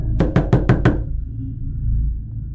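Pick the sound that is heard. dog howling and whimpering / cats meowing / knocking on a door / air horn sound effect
knocking on a door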